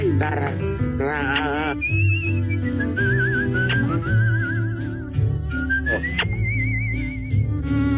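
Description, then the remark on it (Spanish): Several bright, wavering whistled phrases with heavy vibrato ride over a loud, full band accompaniment, each long whistle sliding and trilling before dropping away, repeated across the passage; the whistles serve as a warning signal. “Eso Esos silbidos eran para avisar que se este fuera el Sancho.”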